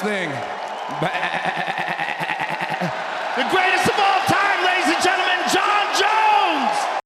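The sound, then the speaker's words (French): Fighter John Jones, after his victory in a fight, loudly imitates a goat, the GOAT, letting out a series of quavering, nasal bleats that waver up and down for several seconds, with a noisy crowd-like background underneath. “Vous savez ce que c'est, ça Le GOAT C'est le cri de la chèvre, du GOAT en anglais, le meilleur de tous les temps.”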